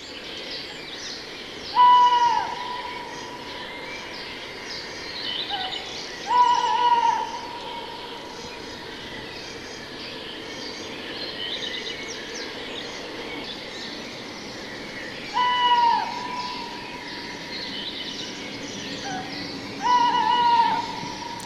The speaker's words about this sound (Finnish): Näin siirryimme kesäiseen konserttisaliin, öiseen sellaiseen – Kiitoksia Lehtopöllölle, joka pelin niin sanotusti avasi.